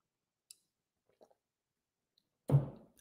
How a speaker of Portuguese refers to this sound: Só dar um gole d'água aqui, perdão.